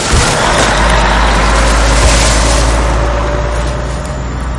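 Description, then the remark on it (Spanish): A garbage truck rumbles past, its heavy engine loud and droning with a deep low roar, then easing off slightly as it moves away. No one speaks. “Yo me levanto y les digo a todos que solo era el camión de la basura.”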